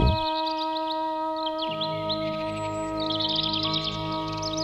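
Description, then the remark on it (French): Birds sing in quick, repeated high chirps and trills over a steady, sustained musical drone; the calls come in bursts, moderately loud. “Et alors Citadins et citadines abandonneront leur ville aux rongeurs, ils regagneront leur campagne d'antan pour y retrouver enfin la paix, bercée par le chant des oiseaux.”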